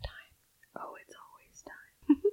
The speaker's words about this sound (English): The whispering? ASMR.